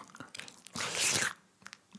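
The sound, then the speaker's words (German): Wet mouth noises: a few sharp lip smacks and clicks around a longer, louder smacking burst in the middle, with no talking. “Ähm, und schmatze auch.”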